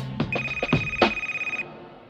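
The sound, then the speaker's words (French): An emergency-line telephone in an office's administrative department rings with a bright, steady electronic tone and a rapid warbling pulse, lasting about a second before cutting off. A few knocks and shuffles sound around it, and no one speaks. “Ça, c'est notre ligne d'urgence.”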